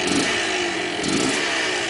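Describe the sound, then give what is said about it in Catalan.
A combustion-engine motorcycle runs, its loud, steady buzzing drone continuous throughout with a slight rise and fall in pitch, and no voices. “Tot plegat per popularitzar unes motos que tindran evidents avantatges per al medi ambient, sense emissions contaminants, i així poder passar d'aquest so”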